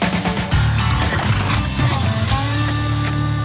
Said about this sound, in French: il y, a un tracteur qui arrive